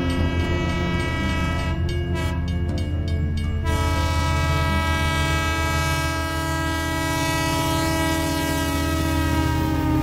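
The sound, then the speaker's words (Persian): A train sounds its horn in one long, loud, sustained blast as it approaches and comes to a stop, with the heavy rumble of rail cars underneath the whole time. No one speaks. “انگار از آسمان به زمین افتاده باشد قطار متوقف”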